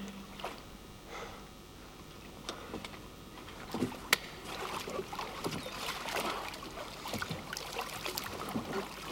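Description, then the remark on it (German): Irregular wooden knocks, creaks and scuffs, with a sharper thump near the middle, as someone clambers into a small wooden boat. No one speaks. “You can't just climb into my boat.”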